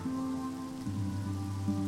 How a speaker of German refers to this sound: War das hier nur Regen oder was?